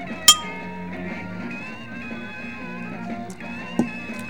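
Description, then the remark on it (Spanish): Glasses clink together in a bright, ringing toast near the start, followed later by a second sharp knock, all over a soft, steady musical background with no talking. “Momento de brindis.”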